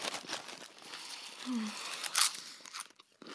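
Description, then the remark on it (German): Rustling crinkle of a bag of chips being handled and opened, with crackly bursts and one sharper rustle near the end, plus a brief faint vocal murmur midway. “Und eine ganze Tüte voll Chips.”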